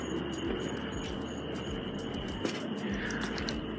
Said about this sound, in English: Um, you know, we've got crickets in the background here.